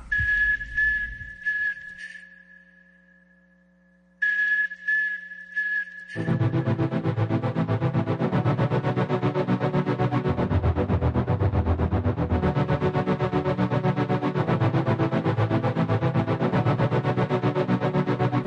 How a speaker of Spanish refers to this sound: ya llegó la banda sonora de la película del momento, Mono.